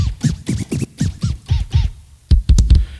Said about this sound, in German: Hier haben wir die Scratcher, ne? über die ganze Tastatur verteilt natürlich.